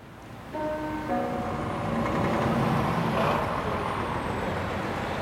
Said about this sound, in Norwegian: Fergeleiet i Rødbyhavn, helt syd på Lolland, er et travelt sted. Døgnet gjennom går trafikken mellom Rødby og Puttgarten. Trailere, personbiler og tog fraktes over Femernbeltet.